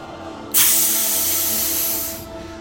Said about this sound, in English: like unbelievable steam from a pipe that has a crack in it suffusing you and everything else.